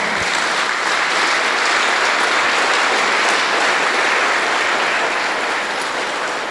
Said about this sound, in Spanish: Amén. Demos un aplauso fuerte al Señor Jesús.